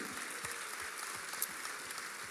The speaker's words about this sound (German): Und alleine das ist ein Applaus wert unserem Gott im Himmel.